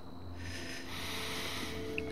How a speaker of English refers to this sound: So, breathing in